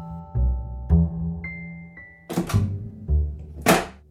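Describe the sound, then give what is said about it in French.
Two children shut a bedroom door: several heavy, low thuds with rattling, clattery bursts of latch noise between them, and a short high ringing tone partway through. No one speaks. “Les deux enfants venaient de refermer la porte de la chambre de Mélissa.”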